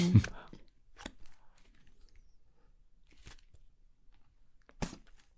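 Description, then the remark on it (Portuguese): A playing card being handled and folded into quarters in a person's mouth: a muffled bump at the start, then three brief, crisp papery crinkles spaced a second or two apart against near silence. “Uma carta ah. perfeitamente dobrada em quatro.”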